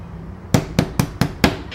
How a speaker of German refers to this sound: schlägt mit der flachen Hand gegen die dicke rote Holztür.